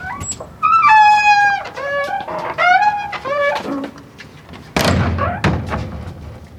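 A wooden door in a castle squeaks loudly as it swings, a run of high, wavering squeals that rise and fall in pitch, followed by a heavy thud as it shuts.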